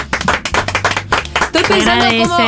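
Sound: audience applause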